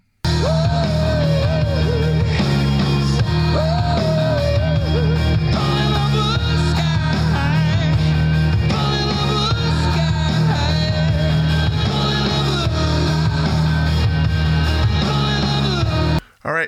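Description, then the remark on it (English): A loud, dense rock song plays without pause, driven by heavy pounding drums under distorted guitar and a wailing lead line, with no talking, before cutting off abruptly at the very end. “So let's listen to … off of ….”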